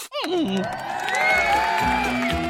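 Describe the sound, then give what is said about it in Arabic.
A loud crowd bursts into sustained cheering and applause, with whoops and shouts rising over a dense wash of clapping for a couple of seconds. “أين التصفيق والهتاف؟”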